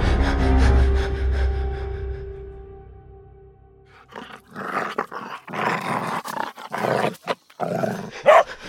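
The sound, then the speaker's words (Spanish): A puppy growls with a low, steady rumble that slowly fades, then breaks into a run of harsher, louder snarling bursts with short gaps between them. No one speaks. “Ah, hasta el cachorrito está de acuerdo, mira.”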